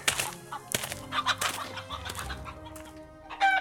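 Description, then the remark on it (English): Giant chickens in a lab cluck in a string of short, uneven bursts, moderately loud, over a low steady hum, with a louder flurry of clucking near the end. “Don't let these giant chickens out of the lab when you leave, okay?”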